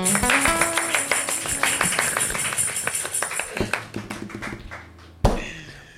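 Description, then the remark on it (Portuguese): Hands clapping in a quick, steady run of sharp slaps, with some tonal sound running underneath; the claps thin out toward the end before one louder hit. “Palmas aí, família.”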